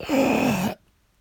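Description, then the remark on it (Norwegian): A voice imitates a royal's long, drawn-out final dying breath, a groaning exhale with a wavering pitch that lasts under a second before cutting off into silence. “Så at de tar det siste pustet, og så kommer det én”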